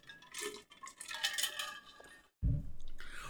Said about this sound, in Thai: ผมขอจิบ น้ำแป๊บนึง